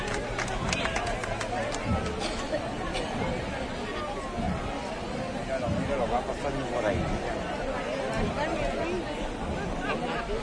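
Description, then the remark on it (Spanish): A large outdoor crowd gives a sustained, loud ovation as a religious procession continues its march, a dense wall of cheering voices and clapping that holds steady for the whole stretch with no single voice standing out. “Y ya ellos continúan su marcha y con esa ovación le despiden a Santo Domingo Sabio.”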